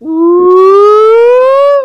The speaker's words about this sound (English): We'll just say play in the middle of our slide whistle. Okay? I'll, I'll, I'll, say play while you're you're coming down off your whistle.